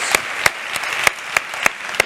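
An audience applauds, with a steady wash of clapping and a few sharp, evenly spaced claps standing out close by, roughly three per second. No one speaks.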